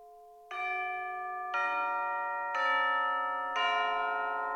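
Tubular bells, used as an extra percussion layer kept separate from the orchestra in the mix, struck four times at an even pace, about a second apart, each ringing note lingering and overlapping the next, bright and fairly loud with no voices.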